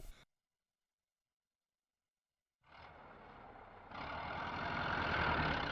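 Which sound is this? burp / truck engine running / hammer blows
truck engine running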